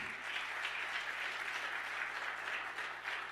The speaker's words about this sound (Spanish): Dale otro aplauso fuerte.